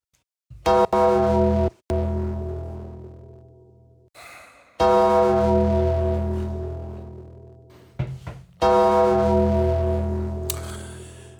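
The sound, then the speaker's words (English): A deep Undertaker-style bell sound effect tolls three times, each loud, resonant strike ringing out and slowly fading before the next arrives about four seconds later, with brief breathy noises between the strikes. “I gave myself some Undertaker bells.”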